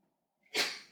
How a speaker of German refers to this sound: Gesundheit.